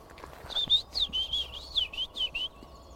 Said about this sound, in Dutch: Ja. Die heb je, hebben we voor mij nog nooit besproken. Zwartkop.